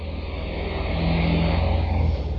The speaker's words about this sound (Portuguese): E passa carro aí também, né? Eu pensei que era só carroça e cachorro. Não, aqui passa carro também.